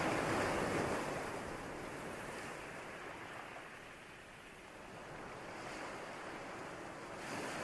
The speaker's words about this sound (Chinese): 请将你的注意力就轻轻的放在这个海浪的声音上面，继续自然的呼吸，放轻松，把你的注意力。放在海浪的声音上面。